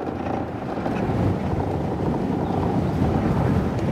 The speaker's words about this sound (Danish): nu der skrumpler vi afsted på sådan en øh, markvej langs med kysten, Øh, så vi kører på sand og sten